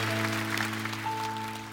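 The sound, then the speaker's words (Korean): A church audience applauds to give glory to God in a steady, dense wash of clapping, with a sustained keyboard or organ chord holding underneath; a higher note joins partway through. No one speaks. “하나님께 우리 영광의 박수를 올려드리겠습니다.”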